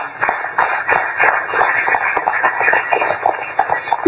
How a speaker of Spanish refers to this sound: Un aplauso al Señor fuerte, por favor.